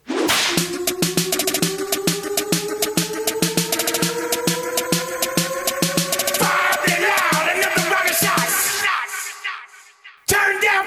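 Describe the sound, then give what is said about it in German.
A rapid, steady series of sharp whip cracks snaps loudly over rising, sliding tones and a pulsing low beat, breaking off briefly near the end before a final burst. “Speaking of Whip.”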